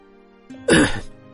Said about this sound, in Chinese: 老刘咳嗽了一声